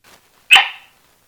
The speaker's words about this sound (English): Abby, my cattle dog and hard headed co host. Say hi, Abby.